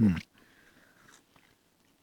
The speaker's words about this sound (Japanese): うん、食べてる間はもう黙るしかないもぐもぐうういうんうん甘いミルクチョコレート